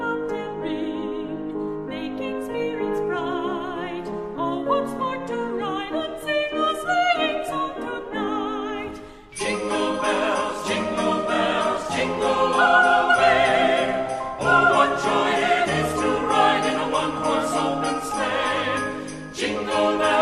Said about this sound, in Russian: Называлась она тогда «One Horse Open Sleigh» – «Сани, запряженные одной лошадью», и звучала вот так.